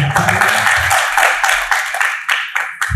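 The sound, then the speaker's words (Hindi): A crowd claps steadily and loudly, many hands overlapping into a dense, crackling wash of applause that tapers into a few scattered, sharper claps near the end. “अच्छा तालियां बजाओ सब”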